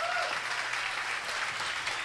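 A large crowd applauds God steadily, a dense wash of many hands clapping at once, sustained and fairly loud throughout with no pause.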